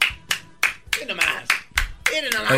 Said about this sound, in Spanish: aplaudir, maestro Que se me chispen las uñas. ¡Bravo!